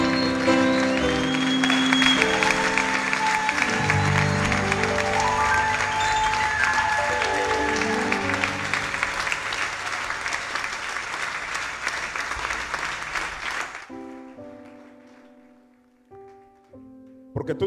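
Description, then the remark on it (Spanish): Sustained applause from a large audience for a mother, about fourteen seconds, dense and steady, then cuts off, leaving a few soft sung or spoken tones. “Dele otro aplauso a mamá, Espíritu Santo.”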